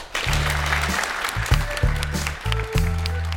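Steady audience applause in Storsalen for the evening's guest speakers, a dense wash of clapping that runs throughout, with low sustained musical tones sounding beneath it.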